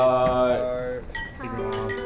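Glasses clink together in a toast at a farewell party for a friend leaving on a trip to Africa, a few bright chimes ringing out and lingering over a faint murmur of people.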